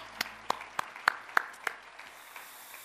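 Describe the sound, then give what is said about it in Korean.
A short burst of encouraging, congratulatory clapping from a church audience after a prayer for directors and assistant directors: about six sharp, evenly paced claps standing out over a soft background wash, then trailing off into a quiet hush. No one speaks. “한번 우리 한번 격려 박수 축하 박수 해주시 바라겠습니다.”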